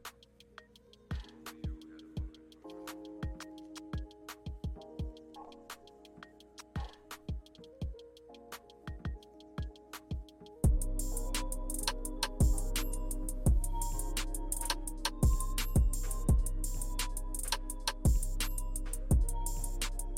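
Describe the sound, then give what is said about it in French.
Instrumental looping background music for a video game plays alone, starting sparse with plucky notes and ticking percussive hits, then swelling at the midpoint into a fuller, louder arrangement with steady bass and rhythmic clicks. “Voilà, et c'est une musique du coup qui boucle, donc on peut la mettre en boucle.”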